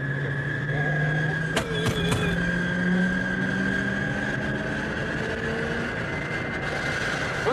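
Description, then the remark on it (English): An American car's engine runs steadily, with a low droning hum and a higher whine under a rough, noisy rumble, broken by a few sharp knocks early on. “listen to that piece of shit.”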